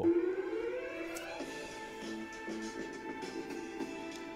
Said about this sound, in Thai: ทีนี้ผมจะให้ลองฟังความยิ่งใหญ่ของอัลบั้ม Hip Hop … นะฮะให้ลองฟังกันดูนะครับในเพลงที่หนึ่งนะครับก็คือเป็นในแทร็กแรก